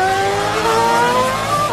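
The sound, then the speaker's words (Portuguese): A loud racing car engine on a track roars steadily, its high-pitched whine shifting slightly as it revs, with a dense mechanical rumble throughout and no voices. “Sentir o calor do motor. Ouvir o ronco de longe”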